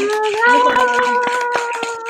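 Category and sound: crowd, applause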